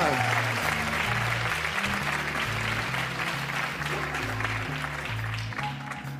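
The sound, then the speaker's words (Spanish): Steady, dense audience applause runs the full length, a continuous crackling wash of clapping laid over band music with a stepping, repeating bass line, as a poetry reading for Fernando Arrabal with the band's music begins. “Un fuerte aplauso.”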